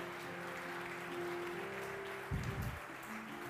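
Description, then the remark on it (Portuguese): A crowd applauds God in a steady, dense wash of clapping that holds throughout, with a brief low thump partway through and no voices. “Se você crer, aplauda bem forte a Ele, aplauda, aplauda, aplauda a Ele que vive.”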